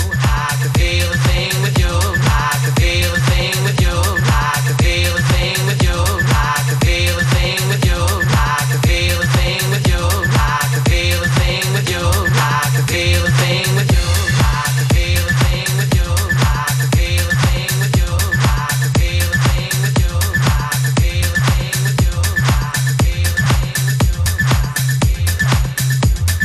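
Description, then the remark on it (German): A loud electronic dance remix plays throughout, driven by a steady pounding kick drum and heavy bass with bright, busy synth layers on top, with no one talking over it. “Jedenfalls war das der Remix”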